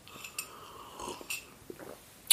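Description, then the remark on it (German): Quiet, breathy slurps of a very light herbal tea with a little sweetener from a mug, several short hissy sips spread across the moment, ending in a sharper, louder slurp. No one speaks. “Aber ich habe eine Tasse und aus der schlürfe ich jetzt.”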